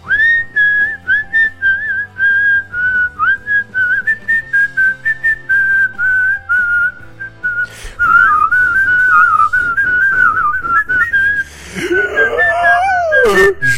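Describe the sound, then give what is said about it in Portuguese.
Someone whistles a film theme melody loudly out of a window as a signal to a friend next door, a run of short, steady notes that grows louder and more strained toward the end, where a voice breaks in over it. “então a gente assoviava isso, aí começava a assoviar bem alto assim, aí o outro completava, aí a gente sabia que era o momento.”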